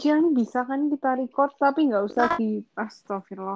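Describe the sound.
A voice on a call talks in short bursts that cut off abruptly, with brief gaps and a sudden crackly burst midway, giving a choppy, stuttering quality as the connection breaks up.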